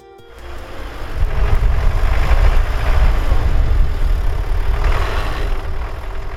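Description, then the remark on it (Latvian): A tractor hauling hay on a farm in Strūžāni parish, Rēzekne municipality, Latvia, rumbles steadily: a deep, continuous low drone that swells in after a brief quiet start and holds at an even, loud level throughout, with no voices. “Ar traktoru braucījiem sīnu vada”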